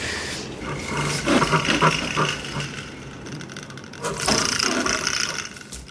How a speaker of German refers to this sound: Und grunzen können sie ja. Ja, grunzen und stampfen und fauchen. Machen wir ganz komische Geräusche.